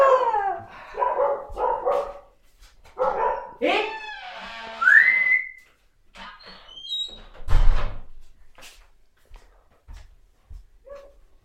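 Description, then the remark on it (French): A pet wolfdog lets out a run of whines and short barks at a door, rising yelps mixed in, followed by a dull thump and a few faint whimpers. “Ah ouais, c'est un chien loup euh, de compagnie.”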